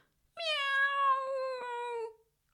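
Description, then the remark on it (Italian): A cat named Leo, terrified on a very high branch of a tree, lets out one long, drawn-out frightened meow, high and wavering, holding steady for nearly two seconds before trailing off. No one speaks. “Su un ramo molto in alto c'è Leo terrorizzato,”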